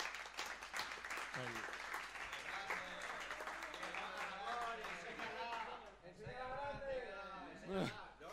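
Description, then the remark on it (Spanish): A crowd bursts into applause for a group of young men ('los chicos'): dense and steady clapping lasting several seconds, with voices and a few cheers rising over it before it begins to thin out near the end. “Ah, dale un aplauso a los chicos, venga, va, que están de puta madre.”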